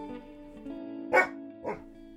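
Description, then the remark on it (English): A narc dog gives two sharp barks about half a second apart, clear, over a steady low background hum with no talking. “Yeah, get this freaking narc dog.”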